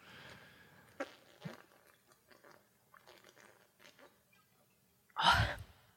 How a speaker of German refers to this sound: Ich, hab, ich trinke nur.